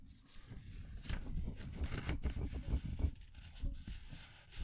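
Quiet rustling and crinkling of a piece of paper being handled, with irregular soft crackles running continuously for several seconds and no voices.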